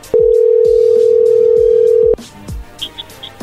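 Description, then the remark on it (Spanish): A loud, steady telephone dial tone hums for about two seconds, then cuts off, followed by faint clicks and a few quick, quiet beeps like number keys being dialed, as someone calls a person again. “pero no sé, pues llámale otra vez, a ver qué.”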